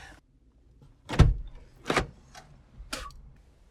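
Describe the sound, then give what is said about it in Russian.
Inside a car, a door or window mechanism operates with a few sharp mechanical clunks and clicks spread over a few seconds, with quiet cabin background between them and no talking. “Мы, кстати, записываем этот подкаст в машине.”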